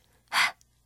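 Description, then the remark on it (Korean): A single breathy, voiceless exhale, like an airy "h" sound, lasting about a quarter second in otherwise quiet surroundings, demonstrating the phonics sound of the letter H in an English lesson for children. “이게 바로 H의 소리입니다.”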